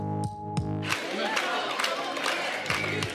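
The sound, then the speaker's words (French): A large crowd in Marseille, gathered to hear Jean-Luc Mélenchon launch the legislative election campaign, roars and cheers loudly and continuously, with a few sustained shouted voices rising above the din at the start and scattered yells throughout. “une photo prise jeudi dernier à Marseille et dans laquelle il y a Grantin, une foule.”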